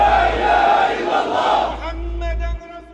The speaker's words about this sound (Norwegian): Det er en gruppe med menn med langt, svart skjegg eh, og også noen damer med, som er helt tildekka med svarte klær, som går opp til ambassaden og står og roper slagord.